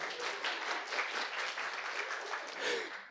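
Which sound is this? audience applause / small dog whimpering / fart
audience applause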